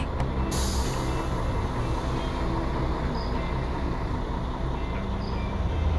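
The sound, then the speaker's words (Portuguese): A large bus engine rumbles steadily, with a short hiss of air brakes at the very start, then a continuous low idling drone, as the bus stops at a rest stop midway between Rio de Janeiro and São Paulo at 2:36. No one speaks. “Agora são 2h36, a gente está aqui no meio do caminho entre Rio e São Paulo, o ônibus fez aquela parada, né?”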